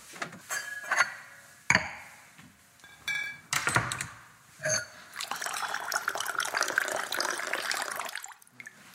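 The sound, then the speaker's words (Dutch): A few sharp glassy clinks and clatters, then white wine pours steadily into a glass for about three seconds, a bright gurgling stream that stops abruptly. No one speaks. “Een glas witte wijn is prima.”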